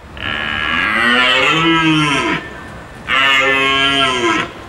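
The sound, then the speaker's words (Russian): A walrus at a zoo in Udmurtia bellows twice: two long, loud, drawn-out groaning calls, the first over two seconds and the second shorter after a brief pause, with no talking. “Это морж из зоопарка Удмуртии.”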